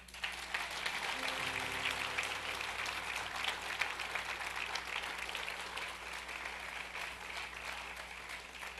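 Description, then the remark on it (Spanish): An audience applauds Jesus steadily for several seconds, a dense, continuous patter of many hands clapping at even loudness, with a faint low hum running underneath. “¿Por qué no le un aplauso a Jesús?”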